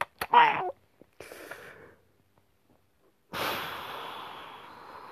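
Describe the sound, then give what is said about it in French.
Loud, exaggerated sniffing from a single voice, as if sniffing a newborn baby: a couple of sharp nasal snorts, then a longer drawn-in sniff, a pause, and a big noisy inhale, with no speech. “Oh, faut que je sniffe son bébé,”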